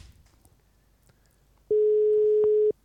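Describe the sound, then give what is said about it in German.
A single steady ringback tone from a landline call sounds once for about a second, loud and clean, after a stretch of faint background noise. No one speaks. “Wir rufen ihn auf dem Festnetz an.”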